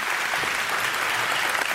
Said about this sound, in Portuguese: gente, acho que a gente podia aplaudir mesmo como uma homenagem, né?